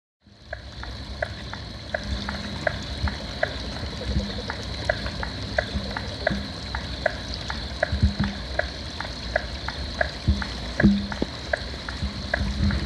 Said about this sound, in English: So it's like almost a tick-tock sound with yeah. the two of them going, but those pock. Yep. Those are uh, right. Limnodynastes peronii. Certainly, striped marsh frog. Striped marsh.